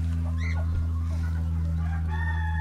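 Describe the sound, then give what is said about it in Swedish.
Hens in a mixed flock, including some purebred Marans hens, being let out onto grass, cluck and call, a few short rising squawks early and a drawn-out tonal call near the end, all over a steady low mechanical hum. “Då har vi ju en höna som har hängt med, jag vet inte hur många år.”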